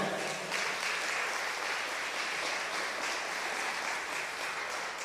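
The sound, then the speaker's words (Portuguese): An audience claps together in a steady, dense wash of applause that holds at an even level for several seconds, with no voices rising above it. “Bom, gente, se essas palmas é para Jesus, tem que ser melhor, né?”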